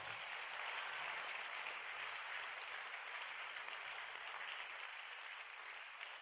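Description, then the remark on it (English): A church audience claps steadily for about six seconds at a preacher's call during a sermon, a dense, even wash of many hands with no voices rising above it. “Come on, clap your hands and say, God.”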